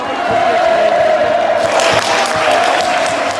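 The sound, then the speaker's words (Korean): About 1,200 Korean and foreign reporters at the press center set up in Seoul cheering loudly and continuously on 13 June 2000, a dense wash of shouts and whoops with scattered clapping, swelling slightly partway through. “1200여 명의 내외신 기자들이 환호성을 질렀다.”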